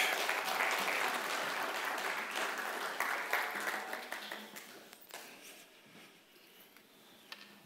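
A crowd's applause for the singers and musicians after worship at a Christian service, loud and dense at first, then gradually thinning and fading over several seconds until only scattered claps remain.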